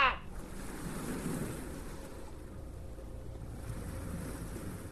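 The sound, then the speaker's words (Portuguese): Sea waves roll and crash at a lighthouse in a steady, rumbling wash of surf, with a brief sharp burst at the start and a swelling surge after it. There are no voices. “Gritei o mais alto que pude, mas o ruído do mar e as paredes grossas do farol abafaram meu desespero.”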